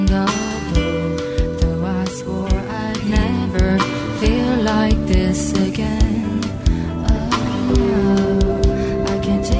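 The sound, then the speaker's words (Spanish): A full, steady song plays with stacked, layered female vocal harmonies: the singer sings the lower main line and provides her own higher backing part behind it, over driving percussion and dense instrumentation at a strong, even level. “No sé si se escucha ahí de fondo que ella tiene como una especie de coro más agudo y ella va cantando encima la parte más grave.”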